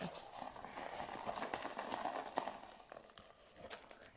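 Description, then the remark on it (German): Papery rustling and soft rattling as a box of folded paper slips with topics on them is shaken back and forth before one is drawn, with a few sharper clicks and taps standing out near the end; no one speaks. “Okay, also damit ihr es auch hört, ja, ich schüttel mal die Box.”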